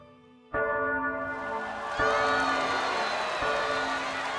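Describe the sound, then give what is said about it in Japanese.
Merry wedding bells peal loudly through a town, struck again every second or so with long ringing tones that overlap, over a busy wash of crowd noise and cheering. “やがてイノックとアニーは結婚し陽気な鐘の音が町中に響き渡った”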